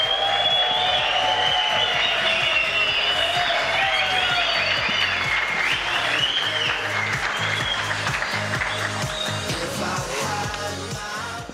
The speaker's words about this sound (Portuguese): Palmas.